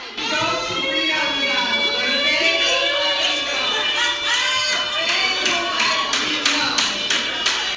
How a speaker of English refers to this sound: You can hear everyone talking over me now.